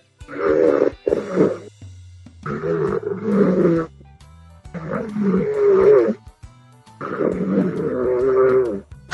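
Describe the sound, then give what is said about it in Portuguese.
Loud snoring into a microphone by a person who has fallen asleep: four long, rough, rattling breaths in a slow, steady rhythm, each a harsh grunting rumble separated by short pauses, with no talking. “tá roncando no microfone.”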